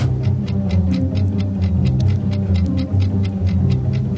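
Tense game-show suspense music plays steadily, a low sustained drone with swelling tones, while a regular ticking pulse runs over it like a clock counting down. No one speaks.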